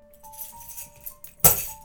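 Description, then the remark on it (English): A soft metallic jingle of car keys tossed from a coffee table, then a single sharp clatter as they hit a hard floor, followed by a brief faint rattle as they settle. No one speaks. “Just pay for gas and try not to crash it, she said as she sloppily tossed her keys from the coffee table in my general direction.”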